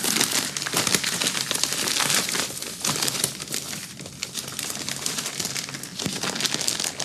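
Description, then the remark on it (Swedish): Paper crinkles and rustles steadily as a small gift is unwrapped, a dense, crackling texture of tearing and crumpling that continues for several seconds without any talking. “Du ska få en eh, liten present av mig”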